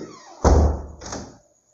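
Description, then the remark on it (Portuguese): A door is pushed shut with a heavy, low thud, followed by a softer second knock as it settles, then quiet. Fairly loud, with no voices. “Fechei a porta.”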